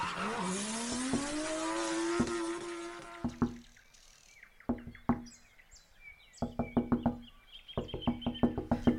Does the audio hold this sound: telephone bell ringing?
no